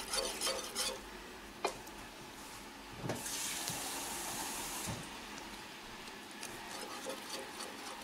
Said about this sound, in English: adding about a cup of water. See, when you first saw that, you didn't think it would take that much water, but it does.